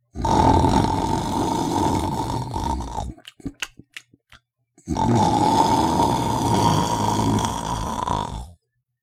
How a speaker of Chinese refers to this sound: 一个风雪交加的晚上，咕噜牛爸爸睡着了，呼噜打得震天响。